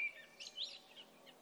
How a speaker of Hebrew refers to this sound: כן. כמו הציפורים בדיוק.